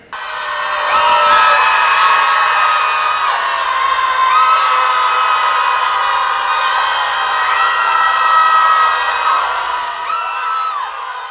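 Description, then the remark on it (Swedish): A large crowd at a demonstration screams out its anger together in one sustained, loud collective roar lasting several seconds, many high voices overlapping into a dense wall of sound before trailing off slightly at the end. “Nu har vi skrikit ut vreden och nu går vi ut och jobbar och handlar och ställer inte upp på, på massmissbruk längre.”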